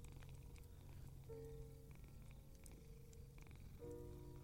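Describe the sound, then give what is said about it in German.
A cat purrs steadily, a continuous low rumbling vibration with gentle rhythmic pulses as it breathes in and out, no voices present. “Jetzt erst bemerke ich es. Die Katze.”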